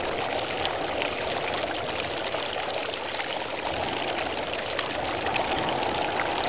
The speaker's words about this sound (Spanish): Y el río que está a tu lado fluye con limonada.